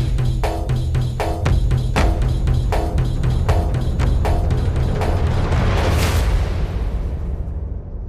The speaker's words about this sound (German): Kommt, schlagt die Klöppel, warnt die Angehörigen der Stämme fern und nah, dass bleichgesichtige Fremde mit ungeheiligten Füßen das Erbe unserer Väter entweihen. Die Tamtams klopfen. Klop, klop, klop, klop, klop.